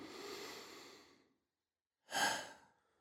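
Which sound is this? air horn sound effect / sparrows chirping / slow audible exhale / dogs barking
slow audible exhale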